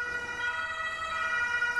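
A steady alarm siren wails on its own, a loud, bright harmonic tone that holds a sustained pitch for under two seconds without pausing.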